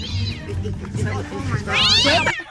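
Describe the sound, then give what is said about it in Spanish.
A cat lets out a loud, drawn-out meow with a rising and falling pitch, over a background of people talking. “hay un gato.”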